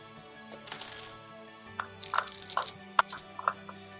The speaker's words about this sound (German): Stell kurz, ich muss äh, mir Würfel holen. Das ist nie ein gutes Zeichen, aber ich darf so selten die 4 würfeln.